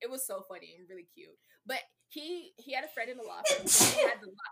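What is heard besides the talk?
sneeze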